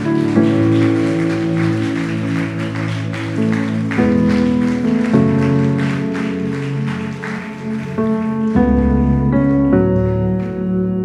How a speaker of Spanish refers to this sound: Si usted lo cree, póngase en pie y déle ese fuerte aplauso al Señor.